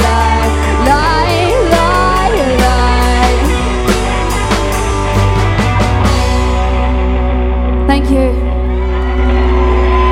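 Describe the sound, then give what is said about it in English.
A huge crowd roars and screams in a loud, sustained cheer, with shrill whoops and shouts rising over a dense wall of voices for the full ten seconds. “now because of that huge cheer.”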